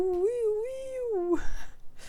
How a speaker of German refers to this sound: Maya hat eine neue Katze und die lief gerade im Hintergrund. Ich habe sie noch nicht kennengelernt. Ja, die äh, hat auch gerade miaut.